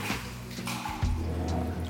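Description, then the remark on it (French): Water drips and trickles in a small cave cavity along an underground river in Wallonia, Belgium, with scattered wet plinks over a steady low rush of icy flowing water, fairly quiet. “Là, on rentre vraiment dans la partie euh, rivière, je sais pas comment dire, mais on voit plus les caves qu'il y avait autour et tout autour, on est vraiment dans un petit truc, euh, petite cavité.”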